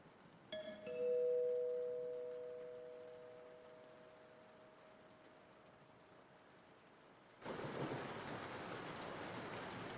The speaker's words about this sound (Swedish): Jag har gått vilse i stormen.